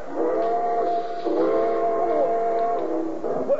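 A steam whistle on train number 31, the Cinder Bucket, blows a long, steady, chord-like tone that wavers slightly in pitch, loud, as the train leaves a station on track three, with no voices present.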